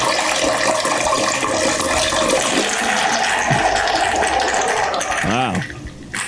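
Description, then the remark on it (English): A loud, wet spraying dick fart hisses steadily for several seconds, then breaks into a brief bubbling, gurgling sputter near the end before trailing off. “Whoa, that was like a dick fart spray that turned into a bubbling fart. Spray, bubble, a bubbling, gurgling fart.”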